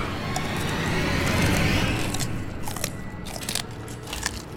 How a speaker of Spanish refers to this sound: ¡Oh! Pero, ¿qué fue eso? Se escuchó como si hubiera mordido hasta el corazón de la mazorca. ¡Qué simpático!